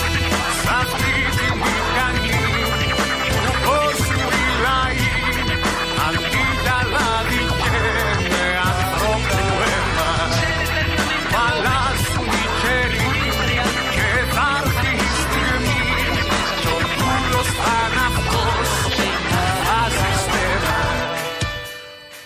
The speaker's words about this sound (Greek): Ό,τι ακούμε είναι μια μπάντα η οποία απαρτίζεται από εκπληκτικά παιδιά, γι' αυτό είναι και εκπληκτική μπάντα,